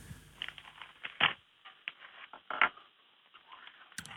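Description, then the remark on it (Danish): Irregular keyboard typing, a run of quick clicky keystrokes with short pauses between bursts, fairly quiet, with a sharper tap near the end. “Jeg prøver at skrive brøndugave. Det er der tastet.”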